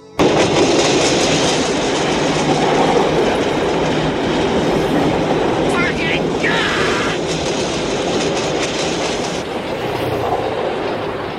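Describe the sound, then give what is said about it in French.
In a film scene with Marlon Brando, a metro train rumbles loudly along elevated rails by the Bir-Hakeim bridge, its wheels clattering steadily for the whole stretch, with faint murmuring voices mixed in beneath the roar. “Il divague sous le métro aérien, les yeux dans le vide, les mains dans la poche”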